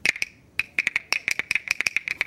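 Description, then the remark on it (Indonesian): A bamboo health tool, used to train the nerves of the left brain, rattles in quick, uneven bursts of sharp wooden clacks with a hollow, ringing tone, about twenty hits in two seconds, loud and with no talking over it. “kalau ini ya di gini nah, bunyi kan nah.”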